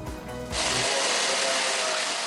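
A power tool kicks in after a brief low rumble and then grinds steadily with a loud, harsh, hissing whine that holds constant to the end, with no voices, as military drone parts and casings are ground by hand in a small factory in Ukraine.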